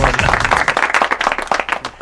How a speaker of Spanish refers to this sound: Así que un aplauso para Dorian y a Fajardo también.